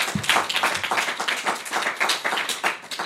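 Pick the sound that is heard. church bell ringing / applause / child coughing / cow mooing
applause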